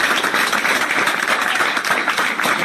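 crowd applauding

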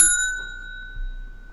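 bell ringing

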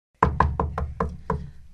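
knocking on a door

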